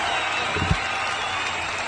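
Steady applause from an audience, a dense wash of many hands clapping at once, holding an even level throughout with a brief low thump partway through.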